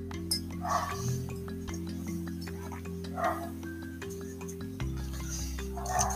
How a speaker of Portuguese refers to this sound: Vou tomar um, um golinho de água aqui para me recompor.